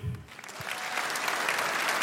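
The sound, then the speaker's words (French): An audience in a hall bursts into applause to vote on a question, dense clapping that starts softly and swells to a steady, loud roar of many hands, continuing without pause for the whole stretch. “A contrario, par applaudissement, qui pense qu'il est coupable et c'est un pédophile”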